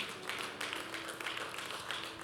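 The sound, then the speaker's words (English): An audience claps steadily for a couple of seconds, a dense patter of many hands blending into a continuous rattle, with a faint low hum underneath and no voices. “Can you clap for him, please?”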